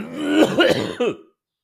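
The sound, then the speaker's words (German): A short run of three throaty coughs in quick succession, fairly loud, from a person with a slight lingering cough after being ill, ending abruptly in silence with no talking. “Ich habe ein bisschen Husten. Das könnten wir ab und zu mal ab und zu, ab und zu mal ein bisschen hören”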